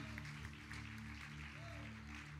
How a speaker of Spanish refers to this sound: Bendito sea el Señor. Ese, aplauso fuerte para nuestro Dios. Amén.